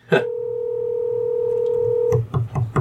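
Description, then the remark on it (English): A phone call ringing out: one steady, droning ring tone holds for about two seconds, then breaks off into a few short, choppy bursts of sound. “I never call him.”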